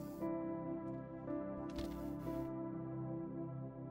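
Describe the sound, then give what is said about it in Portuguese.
A preacher quickly riffles the pages of a Bible, giving a single brief, bright papery flutter lasting under a second, heard over steady sustained background music with no one talking. “Ele pegou a Bíblia e fez assim, ó.”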